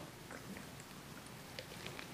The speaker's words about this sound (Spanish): Déjenme le doy un traguito a mi agua